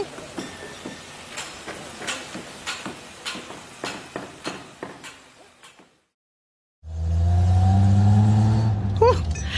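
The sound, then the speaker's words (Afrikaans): A fancy car's engine ticks over with a steady, rhythmic chug, falls silent briefly, then roars loudly, its pitch climbing as it accelerates and pulls away. “Dis 'n spoggerige motor hierdie.”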